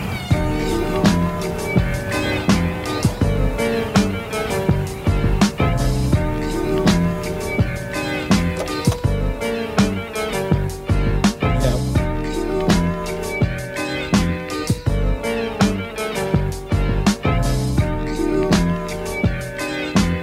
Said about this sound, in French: on va peut-être écouter un tout petit peu de musique, qui est la vôtre d'ailleurs. Ah, C'est le rappeur ….